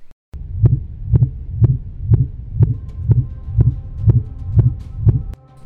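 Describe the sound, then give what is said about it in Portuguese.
A minke whale call from the Western Pacific: a steady train of deep, thudding pulses, roughly two per second, about ten in a row, loud over a faint low hum, with no voices. “E provavelmente é um som de uma baleia mink.”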